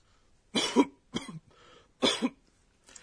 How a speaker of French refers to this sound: Dans le cas d'une mauvaise toux comme celle-ci, on emploie goho goho. Goho Goho décrit une personne qui s'étouffe en toussant violemment. On devine en effet que cette personne a de la difficulté à respirer, non